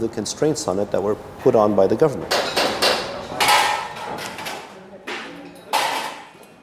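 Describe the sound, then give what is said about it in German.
At a metro station construction site in Doha, Qatar, a voice speaks briefly before a series of loud, irregular metal clanks and hammer-like strikes ring out, with busy background noise between the hits. “Die Baustelle einer U-Bahn-Station in Doha.”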